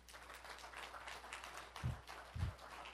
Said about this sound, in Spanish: Y está una aplauso fuerte Señor, dáselo fuerte.